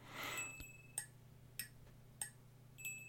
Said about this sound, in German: Also so, so hört sich jetzt nur, wenn man nur diese beiden Percussion-Elemente hinnimmt, das Glöckchen und diese Tasse Stift, die ich jetzt quasi auch nur unter den Refrain gesetzt habe, dann klingt es so.